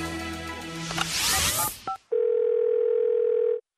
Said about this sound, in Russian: Программа «Тифлочас» на Радиовоз. Уходим на джингл. Вы слушаете Радио ВОЗ.